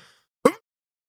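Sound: sneeze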